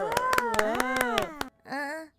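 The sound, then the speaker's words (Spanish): Applause for a classmate: about eight sharp, evenly spaced claps over a sustained, wavering chorus of voices. After a brief pause, a single short vocal sound follows. “Démosle un aplauso a nuestro compañerito.”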